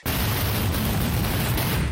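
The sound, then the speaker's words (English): A truckload of fireworks ignites in a neighborhood, rockets flying in every direction: a dense, continuous roar of explosions with deep rumbling booms and crackling bursts layered together, loud and sustained with no pauses. “A truckload of fireworks ignites.”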